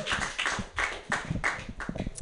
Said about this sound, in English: clapping for Clark Fransman. Oh, Yay!